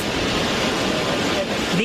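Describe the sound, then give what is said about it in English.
A loud, steady roar of unusually high ocean surf with rogue waves on a California beach, waves washing continuously onto the shore with a constant hiss and no clear pauses between breakers. “Stay away from the ocean in Ventura County, California, following unusually high surf and rogue waves.”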